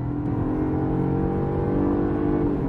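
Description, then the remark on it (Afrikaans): The small engine of a BMW 3 Series with an eight-speed automatic gearbox growls steadily during quick acceleration, a smooth low-pitched drone with a faintly rising tone, loud and continuous throughout with no voices. “Wel, Die klein masjien doen sy werk bo verwagting goed, glad en gesofistikeerd, met net so 'n ligte, sportiewe grom tydens vinnige versnelling.”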